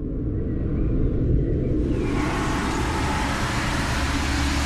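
Steady street traffic noise, a dense low rumble of passing vehicles that grows broader and brighter midway through, filling the background continuously with no voices.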